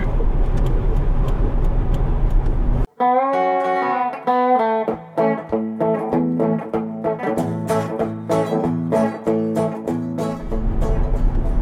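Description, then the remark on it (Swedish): A steady low rumble and road hiss from inside a moving car on the way to the Jord och Skog fair in Ljusdal fills the opening seconds, gives way to a bright electronic musical jingle, then the cabin drone returns at the end. No one speaks. “Sitter jag i bilen här och har min sambo med mig”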